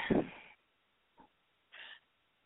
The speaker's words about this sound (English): It's you, you're breathing. I hear you